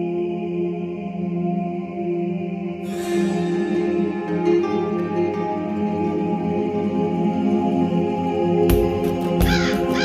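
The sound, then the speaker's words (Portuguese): A crow caws repeatedly and loudly over a dense, sustained droning background, with a burst of noisy crackle near the end and no one speaking. “Deixa, deixa só, deixa só fazer a leitura do Corvo da semana rapidinho.”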